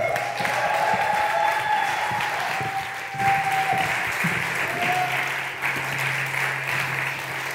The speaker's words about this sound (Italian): Amen, Chiesa, accogliamoli con un applauso.